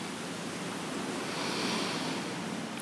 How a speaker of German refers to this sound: Kurz, äh, bevor ich ins nächste Thema gehe, kurze Info, ich sitze am offenen Fenster in Thailand, du hörst das Meer, den Wind, vielleicht auch ab und zu ein Vogel.